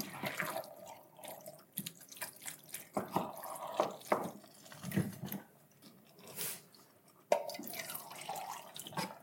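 Water sloshes and swirls around inside an emptied tomato can, rinsing out the remaining tomato, with irregular splashes, drips and small clinks of metal, and no one speaking.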